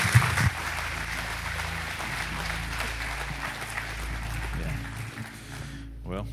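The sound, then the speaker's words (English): An audience applauds a son wearing his father's boots, a dense, steady wash of clapping that holds at a fairly even level for several seconds before tapering off at the end. “Yeah, that's okay to clap for that.”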